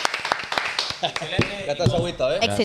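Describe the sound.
A brief burst of audience clapping, sharp and uneven, fades within about a second as a person begins talking, with a few scattered claps continuing beneath the voice.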